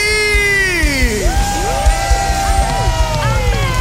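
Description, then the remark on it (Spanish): An audience applauds Jesus and cheers loudly over steady applause, with many overlapping voices whooping and shouting in rising and falling cries, filling the whole stretch with lively, sustained crowd noise. “Y aplauso a Jesús, porque en Él todas las promesas de Dios son sí.”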